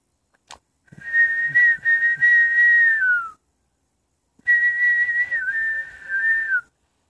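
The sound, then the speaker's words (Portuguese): A person whistles two long, steady, high notes, each sliding downward at the end, imitating a songbird's call. A brief click comes just before the first note, and a pause separates the two. “De repente ele escutou aquele passarinho que cantava.”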